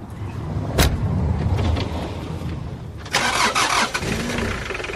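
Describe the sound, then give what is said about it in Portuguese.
A van engine cranks and turns over, a brief click then a rough mid-pitched rumble that catches and settles into a steady idle, with a louder surge partway through, as a herder starts the van to drive up the mountain to the goats. “Optou por levar a carrinha.”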